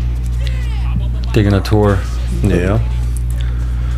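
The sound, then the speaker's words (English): A steady, droning air conditioner hum in a recording studio fills the background throughout, low and constant, while a couple of people exchange brief words over it. “Yeah, we're uh, we're actually recording on one of the uh, studio, one of the studios, but it just happens to be the one with the the loudest, the air conditioner maybe the house will cool down and that thing will will settle down.”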